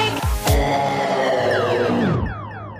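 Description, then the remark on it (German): Loud car horn honking that runs the whole stretch, layered tones rising and falling over a few low thumps near the start, with no voices. “Jetzt kommt er auf einmal mit der Huperei.”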